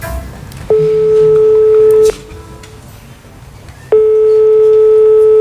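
A steady telephone ringback tone sounds twice, a long tone of about a second and a half, a pause, then it starts again, loud and clear over faint background noise, as a call is placed to the phone of Spanish vice-president Yolanda Díaz.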